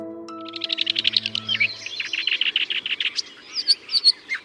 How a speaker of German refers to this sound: Endlich mal wieder Vogelgezwitscher hier bei Was jetzt?